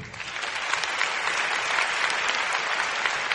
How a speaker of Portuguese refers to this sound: Gente, esse menino é um herói, vamos aplaudi-lo?